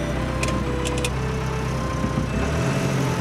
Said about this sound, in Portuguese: dentro do caminhão. Uma mão na ignição, outra no volante. Liga.